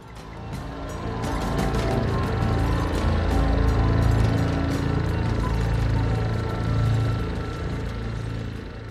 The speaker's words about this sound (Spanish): Y además, al final se oye un ruido de cortacésped.